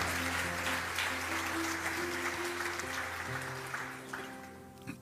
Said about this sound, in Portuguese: Aplauda o Senhor Jesus